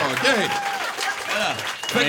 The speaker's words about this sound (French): Mais non, mais on applaudit Laurent